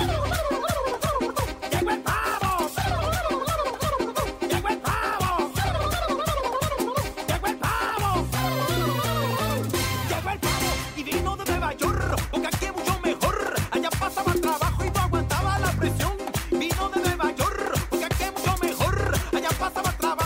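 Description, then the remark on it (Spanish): A lively classic Christmas dance song plays loudly and continuously, with a steady driving beat and bright melody, and turkey-like gobbling sounds woven into the music. “vamos a empezar con un clásico navideño que es la canción de …”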